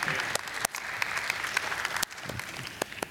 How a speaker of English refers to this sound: I love that smattering of applause. That's so sweet, so kind of you.